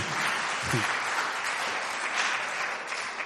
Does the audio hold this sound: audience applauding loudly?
yes